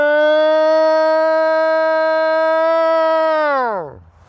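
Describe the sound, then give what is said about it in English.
Bobo from the TV show Finding Bigfoot imitates a Bigfoot call, his official call to bring in a Bigfoot: one loud, sustained howl held at a steady high pitch for about three seconds, then sliding sharply downward and fading out. “It's his official call to bring in a Bigfoot.”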